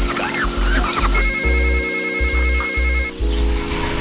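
A telephone rings with a steady electronic trill lasting a couple of seconds, fairly loud, over a low humming background with faint voices around it.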